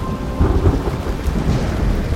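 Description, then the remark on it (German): Deep, continuous thunder rumbles through a thunderstorm with lightning, low and heavy, with a steady wash of rain underneath and no voices. “es blitzt und donnert immer noch um sie herum.”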